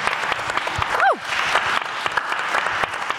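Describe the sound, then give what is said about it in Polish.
An audience applauds steadily as a magazine's editor-in-chief is introduced, dense clapping filling the whole stretch, with a short rising-and-falling whistle cutting through near the middle. “Drodzy Państwo, Magdalena Kicińska, wielkie brawa, redaktorka naczelna pisma.”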